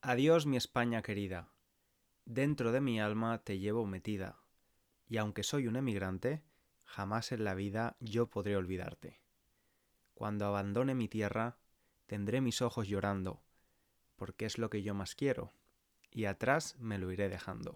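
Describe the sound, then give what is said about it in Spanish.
A Spanish male singer sings a slow Spanish song composed in 1949 alone, his voice clear, holding long wavering notes in phrases separated by brief pauses, with no accompaniment apparent. “Lo que acabas de escuchar es parte de la canción …, escrita y cantada por …”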